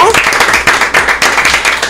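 Studio applause: a group claps loudly and steadily, a dense, crackling wash of overlapping hand claps that holds at an even level for about two seconds.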